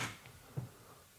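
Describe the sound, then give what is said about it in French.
A door closing softly: a brief scraping click at the start, then a low, muffled thud about halfway through, both faint against a quiet background with no voices. “ben, en fait, ça, là, non, ça, c'est une porte”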